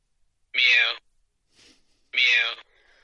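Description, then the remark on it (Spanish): Two short, fairly loud meow-like calls from a person badly imitating a cat, heard from a cat-face picture with a 'press me' message. Each call lasts about half a second with a falling pitch, separated by a brief pause and a soft breathy sound. “Y lo triste es que realmente no es ni siquiera un gato, que hayan grabado a un gato. Es una persona eh, simulando un maullido.”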